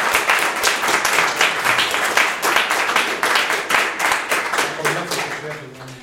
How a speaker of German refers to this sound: ich würde um einen kleinen Applaus bitten für den Dimo, der diese Ausstellung möglich gemacht hat.